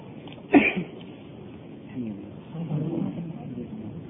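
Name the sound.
sneeze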